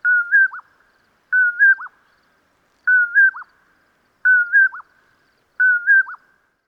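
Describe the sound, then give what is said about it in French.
A bird's call repeats five times at steady intervals, each a short whistled phrase ending in a quick downward note, clear against silence. “Comme à l'habitude, voici la voix de l'oiseau à l'honneur aujourd'hui.”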